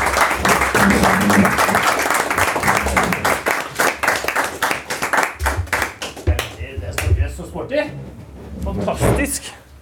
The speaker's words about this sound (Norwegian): Kan ikke dere komme opp? til en applaus, da! Vi gir dem en applaus.